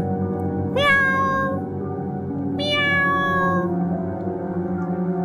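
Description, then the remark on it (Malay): A cat meows twice, each call a drawn-out, rising-and-falling wail about two seconds apart, clear over a low steady background hum. “Tapi masih kuatlah bunyi kucing tu.”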